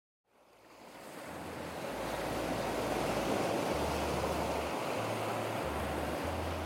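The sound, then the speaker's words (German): Turquoise Indian Ocean surf rolls onto a cream-coloured sandy beach with coconut palms on La Digue in the Seychelles, a steady, full roar of breaking waves that swells up from silence and stays loud and continuous, with some low wind rumble beneath. “Cremefarbener Sandstrand, Kokospalmen, türkisfarbener Ozean.”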